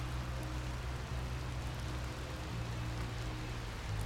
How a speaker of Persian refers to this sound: آره اونم چه بارونی پنجره رو باز گذاشتم بوی نم بزنه تو خونه